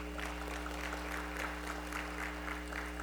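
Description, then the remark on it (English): A room full of people applauds two 15-year-old girls who run the sound booth at a morning worship service, a steady wash of many hands clapping at once for about three seconds, even, over a low electrical hum. “Give those two young ladies a, a wonderful hand.”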